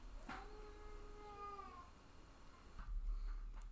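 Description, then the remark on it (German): A baby lets out one long, drawn-out wailing cry that slowly trails off, followed by a few seconds of muffled rustling and low background noise. “Hier schreit ein Baby.”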